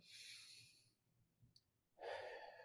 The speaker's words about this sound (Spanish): simplemente toma una respiración profunda, toma otra respiración profunda